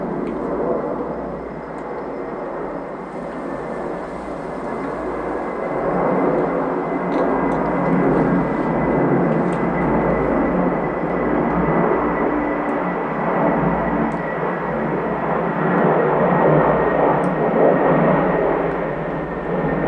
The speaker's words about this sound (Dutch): En er komen veel vliegtuigen over. Dus ik probeer wat opnames te maken.